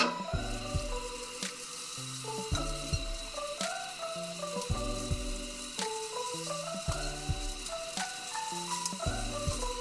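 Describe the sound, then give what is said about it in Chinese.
Shrimp dry-fry and sizzle steadily in a hot, freshly cleaned pan over medium-high heat, a continuous bright crackling hiss that runs the whole time beneath a light, bouncy instrumental tune with plucked bass notes. “那我们一样，先不要翻它，它很快虾子就会变得很火红。”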